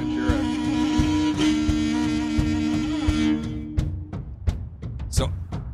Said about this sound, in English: I guess you could call them rock and roll, but it's like Mong. It sounds like Mongolian, like you're marching into battle.